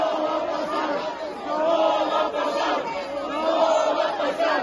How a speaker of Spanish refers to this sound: Antes de iniciar la sesión, la oposición gritaba que la reforma no pasaría y los morenistas les gritaban traidores.